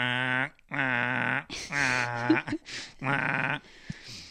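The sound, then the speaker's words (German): A person imitates the trumpeting of a swan goose (Höckergans) gander that runs around the farmyard trumpeting: four loud, nasal, honking calls in a steady rhythm, each about half a second long, separated by short breathy pauses. “er rennt dann völlig verzweifelt am Hof herum und trötet, weil er ist, ein, er ist ein Höcker Gans, die quaken nicht, die tröten. Das geht dann so.”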